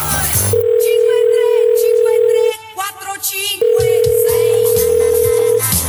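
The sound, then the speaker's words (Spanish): A phone ringback tone heard while calling from a car: two long, steady electronic beeps separated by a short pause, loud, with busy background sound underneath. “Voy a llamarle a ver si tiene a bien bajar, que no tengo ganas de seguir esperando en el coche.”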